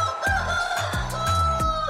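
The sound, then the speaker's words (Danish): A rooster crows loudly in several quick, overlapping calls with a steady tonal hum running underneath; no one speaks. “Leveringsdygtige i en god hanekamp.”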